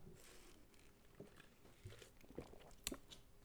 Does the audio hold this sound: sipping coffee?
yes